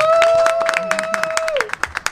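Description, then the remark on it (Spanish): A short burst of lively applause with a sustained whistle-like cheer over it, thinning out toward the end into a few scattered, individual claps. “Fuerte aplauso”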